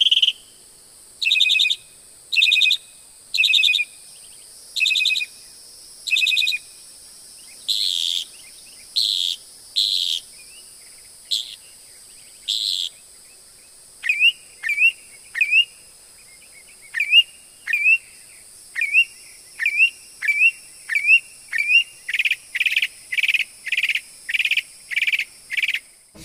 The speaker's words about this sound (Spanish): Escúchela, escúchela. Escuche detenidamente el pajarito que se denomina sinsonte y que dicen, le dicen el pájaro de las 400 voces.